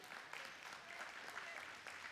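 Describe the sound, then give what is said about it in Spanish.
An audience applauds with dense, continuous clapping that holds at an even level for about two seconds, a steady wash of many hands with no clear individual claps standing out. “un aplauso, este siempre me lo agarro.”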